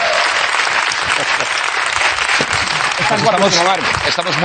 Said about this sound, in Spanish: Un aplauso para la chaqueta